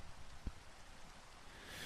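Soft, steady rainfall hisses evenly throughout, a quiet continuous patter with no voices, broken only by a single low, dull thump near the start.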